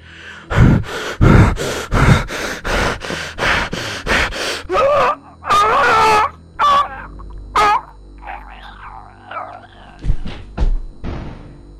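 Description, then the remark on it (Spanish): In a radio booth, a man with a stabbing chest pain clutches his heart and gasps sharply over and over in quick, ragged breaths, then lets out strained, drawn-out groans that weaken into faint moans, ending with a few short, abrupt, loud sounds as he falls to the floor. “agobiado y aterrado, siente un dolor punzante en el pecho. Agarra su corazón jadeando,”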